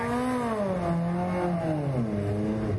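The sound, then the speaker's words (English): A small rear-mounted Coventry Climax all-alloy single overhead cam four-cylinder car engine revs steadily, its droning pitch wavering and then sagging lower toward the end, with no voices over it. “It's a, it's a Coventry Climax all alloy single overhead cam engine.”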